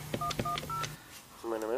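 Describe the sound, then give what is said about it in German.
A phone number is dialed to call an ambulance after a car accident: several short, bright two-tone beeps in quick succession over a low steady hum, followed by a brief pause and then a voice starting to speak. “Die haben ein Telefon. Bitte rufen Sie einen Krankenwagen.”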